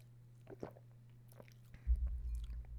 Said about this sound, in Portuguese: Uh, eh, arrotei sim.